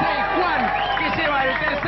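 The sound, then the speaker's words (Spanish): An audience at a game show's grand final applauds steadily for the contestant numbered 16, with many voices cheering and calling out over the clapping, a dense, continuous crowd roar that holds for about two seconds. “Fuerte el aplauso para el hombre 16”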